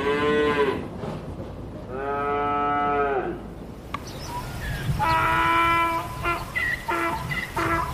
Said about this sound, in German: Die ersten Kühe machen auf sich aufmerksam.